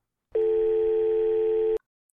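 A single steady telephone ringback tone heard through a handset held to the ear, the first ring of a call just dialed, lasting about a second and a half with a slightly filtered, phone-line quality, then cutting off cleanly into silence.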